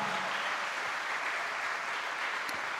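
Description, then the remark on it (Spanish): An audience claps for the Lord, a dense continuous wash of many hands with no pauses and no voices, holding an even, fairly loud level for a few seconds. “A su nombre, dale un aplauso al Señor.”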